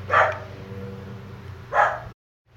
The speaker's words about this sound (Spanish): Hay un perro, güey, un perro, un perro